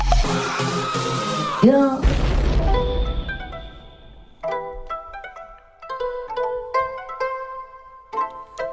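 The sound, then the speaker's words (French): A loud heavy metal track from 2019 by a New York band, with harsh screamed vocals over dense distorted guitars, a deep booming hit, then choppy, stuttering guitar stabs separated by brief gaps. “C'était …, … de …, sorti en 2019 sur l'album ….”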